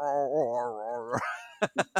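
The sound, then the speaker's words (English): A person imitates a singing dog, with a long, wavering howl rising in pitch, then three quick, sharp yips in a row. Fairly loud, with no other sounds. “actually, that does make sense because my dog is a little bit of a singer.”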